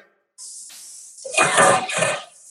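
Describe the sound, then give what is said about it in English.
Garlic is added to smoking-hot oil in a hot pan with a loud, crackling sizzle that surges in two strong bursts after a steady background hiss, with no one talking. “I'm getting a little oil from the frying side, and I can see that it's smoking already. I'm gonna add my garlic.”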